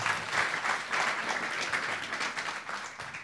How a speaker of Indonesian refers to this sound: Tepuk tangan dong. Luar biasa.